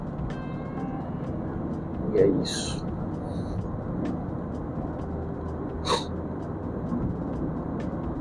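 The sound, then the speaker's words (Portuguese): Steady low rumble of light road traffic with few cars going by, no single pass standing out; a man speaks briefly over it. “O trânsito tá razoavelmente legal, poucos carros.”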